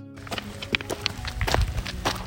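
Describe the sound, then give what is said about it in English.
Footsteps crunch along a trail, approaching the trailhead in a steady walking rhythm, several distinct steps, moderately loud, with no voices. “the sound of footsteps approaching the trailhead.”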